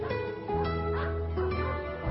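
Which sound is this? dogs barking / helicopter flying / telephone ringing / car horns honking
dogs barking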